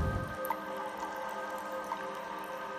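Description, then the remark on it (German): A brief watery surge as a swimmer's head breaks up through the water surface into a large stone cave, followed by soft, scattered drips falling back, fairly quiet against a faint steady background. “Du bahnst dir deinen Weg nach oben und streckst schließlich den Kopf aus dem Wasser.”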